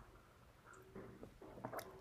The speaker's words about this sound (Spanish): perdón, me tomé un, sorbito de té, pero porque ahora en Buenos Aires está haciendo mucho frío, así que a esta hora de la tarde ya empieza a refrescar. Eh, y hoy cambié el mate por el té, así que voy a tomar otro sorbito más.